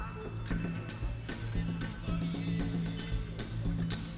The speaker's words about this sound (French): Nous avons trinqué et continué notre conversation